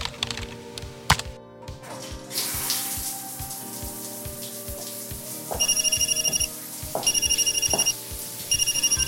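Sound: telephone ringing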